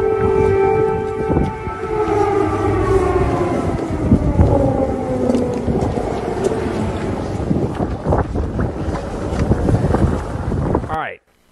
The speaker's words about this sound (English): They're walking out, and then all of a sudden, out of nowhere, air raid sirens go off.